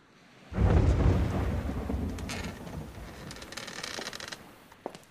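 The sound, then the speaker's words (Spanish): A deep roll of thunder bursts in after a quiet moment, booming loudly at first and then rumbling on and fading slowly, with the hiss of rain and scattered drops beneath it. “Va a llover.”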